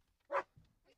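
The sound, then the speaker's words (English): A two-year-old female German shepherd sheriff's canine tracks a person's scent to a hidden toy, giving one short whimpering cry, followed by a few faint, low snuffling and whining sounds as the dog moves along. “Specifically, a two year old German shepherd named Nika,”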